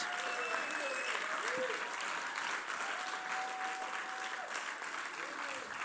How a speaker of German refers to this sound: Hey, gebt ihm auch mal einen Applaus.